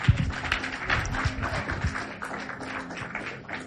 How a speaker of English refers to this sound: Clap your hands for the Lord.